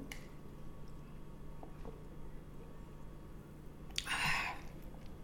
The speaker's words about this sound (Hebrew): ולכן, אני כרגע עוצרת, רגע, תמתינו, אני ש... לוגמת מים, תקשיבו.